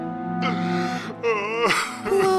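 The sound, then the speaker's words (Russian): A man weeps in three or four heaving bursts of wavering, moaning cries broken by sharp breathy gasps, with no words spoken. “плачет. Как его жалко.”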